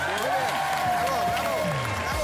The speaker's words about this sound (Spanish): Oye, chicos, aplaudir.